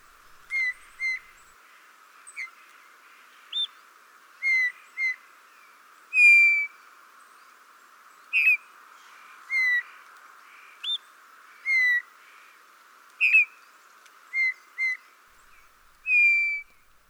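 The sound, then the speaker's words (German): Calls of a native Eurasian bullfinch: soft, short piping whistles repeated at irregular intervals, some in quick pairs, over a faint steady background hiss, with no talking. “hören wir uns nun kurz den Ruf unserer heimischen Gimpel an.”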